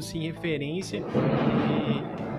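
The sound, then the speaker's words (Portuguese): A man speaks briefly, then a loud, deep rumble of nearby thunder rolls in and sustains for over a second, swallowing the voice in a broad, heavy roar. “isso foi um trovão”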